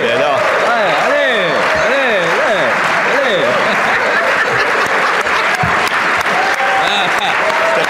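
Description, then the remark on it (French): Loud, sustained applause from members of a parliamentary assembly for the Premier ministre, many hands clapping in a dense continuous patter, with voices calling out and chattering over it throughout. “Il faut l'applaudir!”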